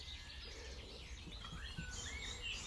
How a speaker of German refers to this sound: Jedes Zwitschern der Vögel, jeder leichte Windhauch, der hörbar ist, umspielt liebevoll diesen Raum, der nicht dargestellt werden kann.